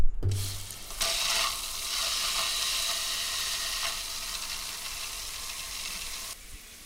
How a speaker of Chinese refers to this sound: 好，你准备开全热的水，在三、二、一。